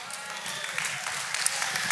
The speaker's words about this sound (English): Yes, all the ladies are clapping.